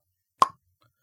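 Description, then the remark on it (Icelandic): A voice imitates an Achilles tendon snapping as someone stretches it on a bench or steps up onto a bench, with one sharp, brief mouth pop that dies away quickly. Nothing else follows but near silence. “smellur og þá bara duh, hásinn er bara slitinn og þetta gerist alveg í bara svona þetta er alveg ekkert óalgengt að fólk slítir hásinn bara svona frekar venjulegum aðstæðum”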